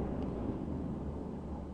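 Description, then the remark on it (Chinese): A low, rolling rumble of thunder, steady and fairly soft for its whole length, with dull bass-heavy energy and no voices over it. “这阵雷声来得正好，就好像是我配上去的一样。”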